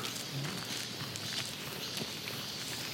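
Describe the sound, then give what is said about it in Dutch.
Steady footsteps crunch along a rough mountain path as someone climbs slightly uphill under trees, a few soft irregular steps over a constant hiss of outdoor background noise, quiet, with no talking. “we lopen nu plotseling ook onder de bomen.”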